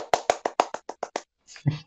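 Nine quick, even hand claps ring out crisp in a steady rhythm, followed by a brief murmur of a voice right after the clapping stops.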